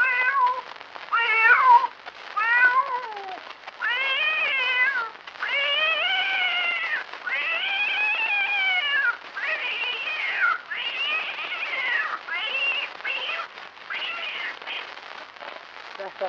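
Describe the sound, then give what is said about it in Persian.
A cat meows repeatedly and insistently, long drawn-out wavering cries following one after another with brief pauses, loud for the whole stretch. “آی گربه مال شما هست”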